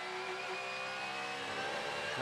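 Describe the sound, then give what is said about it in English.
A Porsche race car driven by Trent Hindman accelerating on track, heading up the climbing S's through the snake to turn 7, its high, strained whine climbing steadily in pitch as it holds a loud, continuous drone with no voices present. “Trent Hindman driven Porsche, and immediately he pulls out 4, 5, 6, 10 cars lengths and heads up the climbing S's through the snake and up to turn 7 at the front of the field”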